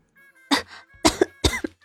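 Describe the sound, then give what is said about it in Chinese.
Three short, deliberate fake coughs in a steady rhythm, each a sharp burst trailing into a throaty "ahem", moderately loud with no talking, sounding suddenly from not far away. “一阵佯装正经的咳嗽声音突然不远处响了起来。”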